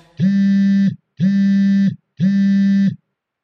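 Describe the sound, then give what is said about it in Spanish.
A cell phone rings with three identical buzzing electronic tones, each lasting under a second and spaced evenly apart. The sound is loud, with no voices. “Suena un celular.”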